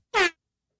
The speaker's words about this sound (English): That's my new favorite sound, by the way is the DJ air horn sound and oh, and stopping it like a, a second in.